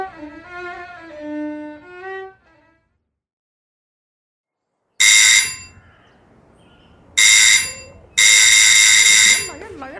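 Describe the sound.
A doorbell rings three times as loud, harsh buzzes: two short bursts, then a longer one. Someone talks briefly before the rings, with faint voices between them.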